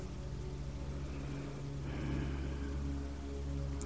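Steady rain falls continuously, a dense, even patter with a low constant hum beneath it and no voices, a soft wash of sound that never lets up.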